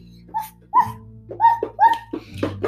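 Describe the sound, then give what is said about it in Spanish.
A dog barks in a quick series of about six sharp, high-pitched, loud yaps, with a low steady hum underneath and no one speaking. “De pronto escuchó un ladrido y a lo lejos vio que un perro se acercaba corriendo.”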